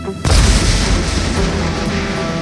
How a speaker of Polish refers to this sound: O godzinie 5.49 jeden z mieszkańców bloku przy ulicy Wojska Polskiego w Gdańsku dzwoni na pogotowie gazowe zgłosić awarię instalacji. Zgłoszenie zostaje przyjęte. Załoga pogotowia zbiera się do drogi. Zaraz po zgłoszeniu o 5.50 dochodzi do eksplozji.